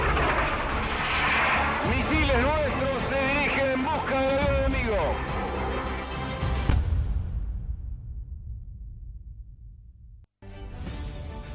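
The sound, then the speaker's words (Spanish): Loud, thundering bomb blasts at an airport roar with heavy rumbling, a wavering tone rising and falling through the din, then a long fading rumble before another harsh burst cuts in. “Sigue las explosiones en el aeropuerto que podrían ser originadas, además de las bombas, por los combustibles que flotan.”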